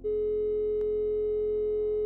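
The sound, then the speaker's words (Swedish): A telephone ringing tone as someone lifts the receiver and calls the police: a single steady electronic hum that holds unbroken for about two seconds, clear, with a faint click partway through and no voices. “Han lyfter på luren och ringer polisen.”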